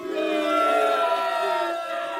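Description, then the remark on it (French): A crowd at a zoo boos loudly in one sustained, droning jeer that holds steady for a couple of seconds before tapering slightly, with many voices blending together. “Rouge de honte, l'onirique lâche son attrape-rêve et s'enfuit en courant sous les huées du public.”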